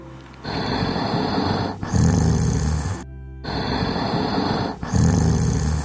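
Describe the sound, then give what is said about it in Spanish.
Loud, deep snoring of a wolf asleep in a cabin after eating its fill, with rough rumbling breaths repeating in a slow, steady rhythm and a brief silent break partway through. No voices, just the heavy, growly snores. “Quiso la suerte que en ese momento el padre de Caperucita Roja fuera pasando por la cabaña y al escuchar los horribles ronquidos, asomó la cabeza para ver qué hacía tanto ruido.”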